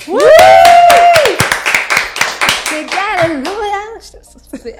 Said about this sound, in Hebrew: אנחנו רוצות להגיד תודה ענקית. אפשר ו... רגע למחוא כפיים?